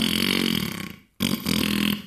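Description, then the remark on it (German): A whoopee cushion lets out a loud, raspy fart noise in two blasts, a long buzzing one, then a brief pause and a second slightly shorter one, with no talking. “Er fragt, was wir für das Pupskissen haben wollen.”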